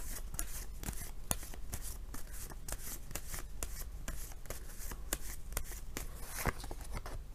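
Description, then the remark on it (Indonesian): Shuffling of tarot cards for an Aries tarot reading: a steady papery rustle broken by many sharp, irregular snaps and flicks as cards are handled, with no one speaking. “Kita bacakan sekarang kartu tarotnya.”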